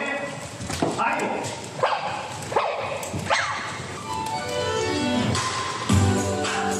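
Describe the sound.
Sony Aibo robot dogs walk onto a stage at a product announcement, letting out a string of short, electronic-sounding barks and yips, with sweeping synthetic tones in between, over a steady background of murmuring voices.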